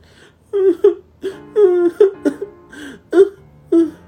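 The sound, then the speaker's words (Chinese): Eerie wailing like a man's crying, heard from a car roof while driving fast in strong wind: about seven short, sobbing cries with wavering, bending pitch, separated by brief pauses, loud and with no other talk. “那声音有点像是男人的啼哭声”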